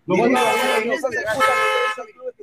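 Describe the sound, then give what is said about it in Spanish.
A voice imitates a car horn honking, giving two long, loud, nasal blasts with a short break between them. “Hoy todo es claxon en Perú, ¿no?”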